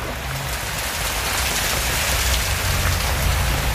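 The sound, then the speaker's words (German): Hail pelts down hard and steadily near Santiago, a dense, constant clatter of countless small impacts on surfaces, heard from under a small driveway, with no voices over it. “Also ich weiß ja nicht, wie sehr ihr das hören könnt. Aber es hagelt.”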